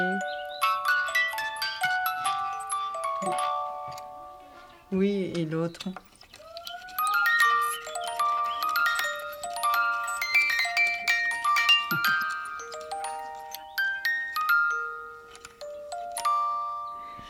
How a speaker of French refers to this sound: La sonnette